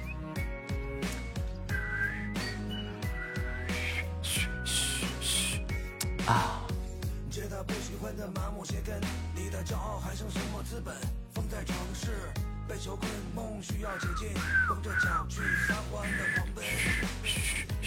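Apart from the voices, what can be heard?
person whistling a tune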